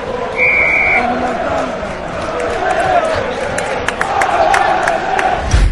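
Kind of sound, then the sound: crowd, football stadium crowd cheering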